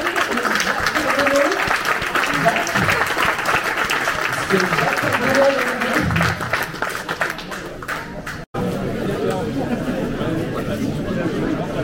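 A crowd applauds steadily with dense, continuous clapping, mixed with murmuring chatter; the clapping briefly cuts out near the end, then resumes with a thinner, busier texture.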